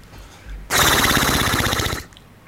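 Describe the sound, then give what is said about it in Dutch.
A person imitates a horse snorting in a game of guessing animal sounds, blowing a loud, sustained lip-flapping raspberry that rattles rapidly for over a second, breathy, then stops abruptly. “Ja, een, uh, het, hoe heet dat geluid eigenlijk van een paard? Ik, heb het hinnetje bestaan, maar hoe heet dat met die, met die flapperende lippen?”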